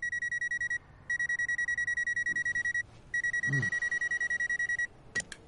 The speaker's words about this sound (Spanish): Más tarde está en la cama cuando suena el despertador.